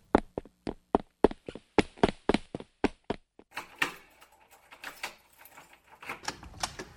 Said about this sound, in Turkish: Ne o? Durun. Kapının önünde bir tıkırtı var.